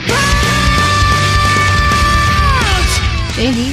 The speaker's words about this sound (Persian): آروم باشید به جایی که ما بکشیم بذار ایشون جیغ بکشه